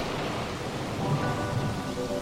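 Steady rain pours down in a dense, even hiss, with a low rumble of thunder rolling underneath. No voices, just the continuous wash of a storm.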